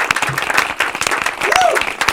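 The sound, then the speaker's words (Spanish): Dense, steady applause from an audience, many hands clapping with a brief whistle-like cheer rising partway through, loud and continuous for the whole moment, as the El Tigre award for the Puerto Rico Department of Justice is announced on Día de Logros. “Aplauso.”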